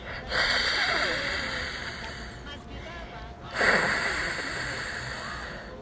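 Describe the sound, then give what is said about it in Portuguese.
A voice makes a raspy, guttural R sound deep in the throat, the sound the letter R makes at the start of words, held for about two seconds, then repeated once more after a brief pause. It is fairly loud. “Que som que faz? Quando o R está no começo das palavras, ele faz o som de”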